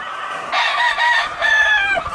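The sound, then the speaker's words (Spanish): A rooster, a breeding rooster its owner is using this season, crows with a loud, raspy cock-a-doodle-doo stretched over two drawn-out phrases, with no one talking. “¿Está muy precioso este gallo?”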